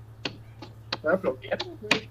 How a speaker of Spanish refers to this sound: El pedo, güey, es que no sé si fue, no sé si sonó aplaudida de palmas o aplaudida de muslo, güey. es que uno puede aplaudir por muchas cosas, mira, con una mano